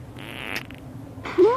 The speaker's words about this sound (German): So wird gelacht und sich genervt, wenn jemand unter der Decke furzt.